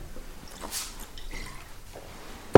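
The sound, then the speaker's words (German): Sparkling water is poured into a glass, with soft splashing and faint fizzing crackle that continues quietly before a sudden loud knock at the very end. “Glas Wasser holen.”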